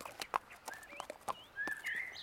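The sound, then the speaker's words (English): A horse is led slowly by the reins out of a cornfield, its hooves giving a steady, unhurried clip-clop of sharp taps, while birds chirp faintly in the background toward the end. “Then he led the horse carefully out of the corn.”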